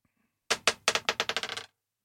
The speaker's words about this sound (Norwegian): Du skal få terningen her. Over bordet! Kaste den på bordet der.